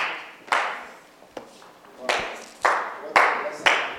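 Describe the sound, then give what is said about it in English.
A church audience claps hands for the Lord as the service is brought to a close, in a loose, roughly steady rhythm, sharp loud claps landing about every half second over a sustained wash of reverberant crowd noise. “Clap your hands for the Lord and stand to your feet.”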